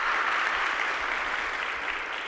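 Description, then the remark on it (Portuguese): A crowd applauds steadily, a dense wash of many hands clapping at an even, sustained level for a couple of seconds with no voices standing out. “Isso é para mim e isso é para você. Pode aplaudir.”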